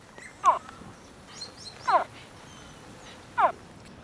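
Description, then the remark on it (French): A very young spectacled caiman, captured and kept captive in a house, gives a distress call: three short, high, chirping yelps spaced about a second and a half apart, clear over a faint background hiss. “Alors, on va écouter par exemple un tout jeune caïman à lunettes.”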